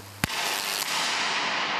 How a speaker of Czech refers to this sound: přikládáme nějaké velké napětí, které v případě, že dojde přeskoku, to je potom ten výboj ve vzduchu.